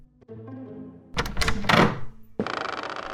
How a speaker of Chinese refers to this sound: 好了，我我去开门了。